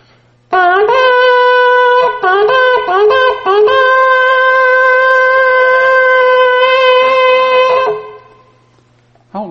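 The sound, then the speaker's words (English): A loud blast on a makeshift shofar made of three or four pieces of cow's horn put together: a few short, wavering notes at first, then one long, steady, brassy tone held for several seconds before it cuts off. No one talks over it. “It's a, it's a make-believe shofar. It's about three or four pieces of cow's horn all put together.”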